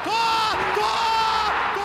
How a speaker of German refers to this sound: Der Schrei kommt aus der Arena of Football. Die Boxautos knallen aneinander und jagen einem riesigen Ball hinterher.